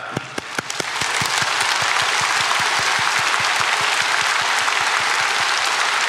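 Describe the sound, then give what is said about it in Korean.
A crowd claps together on instruction, starting with a few distinct sharp claps that quickly swell into dense, continuous applause at a steady loud level. “자, 박수를 좀 쳐보겠습니다.”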